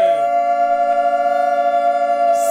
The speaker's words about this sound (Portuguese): Os alarmes estavam aqui mesmo com a radioatividade toda a sair por baixo da mesa.